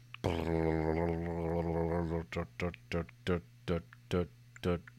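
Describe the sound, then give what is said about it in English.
A voice imitates a spinning prize wheel used for a giveaway: a long sustained vocal tone, then about eight short, rhythmic clicking syllables spaced evenly like a wheel ticking past pegs, clear. “You can uh, you can't hear the spinner noise, but it sounds like this”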